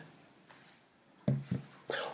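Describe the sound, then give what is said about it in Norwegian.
A puppy whimpers in three short, high whines, two close together and then a brighter third, fairly soft against a quiet background. “Det var en liten hundevalp.”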